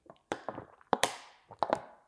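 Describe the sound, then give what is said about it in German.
Crinkly crackles and sharp taps as a plastic water bottle is squeezed and handled, coming in uneven bursts of bright, crisp clicks with short pauses between them. “Eine, jetzt habe ich eine Wasserflasche in der Hand.”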